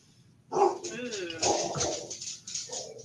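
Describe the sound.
A female dog barks in a few short, sharp, loud bursts about a second apart, with muffled voices in the background.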